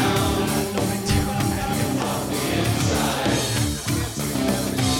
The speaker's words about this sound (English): It was that keyboard. I mean, how'd they get that that rumble? That, that's like the lowest we've heard any tone on this album. Real thick rumbling.